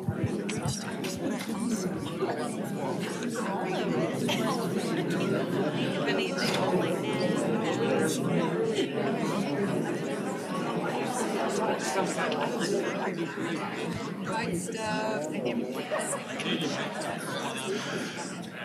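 Many people chat at tables at once, telling their table mates their favorite breakfast foods; overlapping voices blend into a steady, lively babble that stays loud and constant throughout, with no single speaker standing out.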